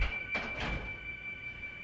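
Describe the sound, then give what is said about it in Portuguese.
A door is pushed open with a couple of quick, muffled knocks and a scraping rush, over a faint steady electronic whine and background hiss. “Ei, abrindo a porta Agora abrindo pior. a porta é.”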